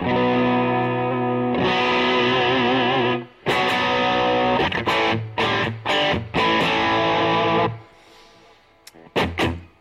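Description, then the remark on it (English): Loud, heavily effected electric guitar sustains thick distorted chords with a wavering, chorus-like shimmer, broken by abrupt stops and choppy stabs, then drops to a faint hiss before two final bursts. “Let's play some guitars, shall we?”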